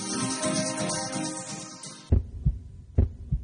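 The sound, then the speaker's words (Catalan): A dense musical bed cuts off abruptly, then a deep, loud heartbeat thumps in two double-beat pairs, evenly spaced, with no voices, in an advertisement for the Catalan Football Federation's campaign 'Tots som un batec'. “Tots som un batec és la nova campanya de la Federació Catalana de Futbol, juntament amb Leo Messi, per cardioprotegir tots els camps de futbol, pavellons i pistes de futbol sala de Catalunya.”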